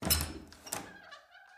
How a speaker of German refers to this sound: Gerade als er die Tür aufschließen will, schwingt sie nach innen auf.